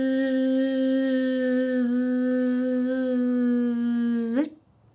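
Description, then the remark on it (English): A single voice hums a long, steady buzz imitating a buzzing bee while breathing out in a breathing exercise, held evenly at a low pitch for over four seconds before cutting off, clear. “And then we're going to make the sound that a buzzing bee might make.”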